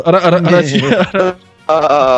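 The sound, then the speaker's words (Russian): A person's voice imitates a goat, producing loud, wavering, nasal bleats in a few close bursts with a short pause before the last one. “Вы до этого у меня говорили как козлы.”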